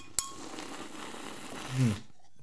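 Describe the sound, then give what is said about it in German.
A single sharp, bright clink of glasses of mead beer rings out near the start during a birthday toast, followed by a steady wash of background noise and a brief low murmur just before it falls silent. “Prost. Prost, Prost, Prost, Prost, Prost, Prost, Prost, Prost.”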